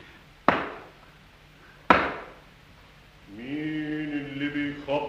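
Two loud, heavy knocks on the first door, which has two rings, about a second and a half apart, each ringing out briefly; a sustained, wavering tonal sound begins shortly after the second knock.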